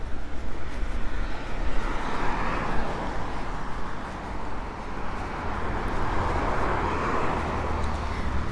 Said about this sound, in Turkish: Tabii ana yoldan ne kadar uzaklaşırsam o kadar iyi olur. Çünkü e, arabalar hızlı geçtiği için arabaların gürültüsünü muhtemelen çok duyuyorsunuz. Onun da sizi rahatsız etmesini istemediğim için ana yoldan çıksam iyi olur.